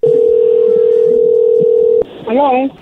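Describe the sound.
A steady, unbroken telephone tone hums at a low-middle pitch for about two seconds as a call is placed to a man's wife, ends with a sharp click, and then a voice briefly speaks.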